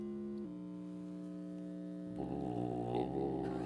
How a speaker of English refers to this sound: So that is the hum that's caused by the electricity that's in all of our, our wires in our buildings. They're all changing directions 60 times a second, except in Europe, mm-hmm. it's 50 times